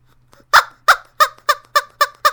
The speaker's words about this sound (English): Our poll this week is uh, you know those um squeaky chickens?